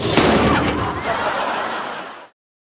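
One loud, sharp bang of a real blow to a person's head during the filming of a scene, followed by a noisy, rumbling tail that fades over about two seconds before cutting to silence.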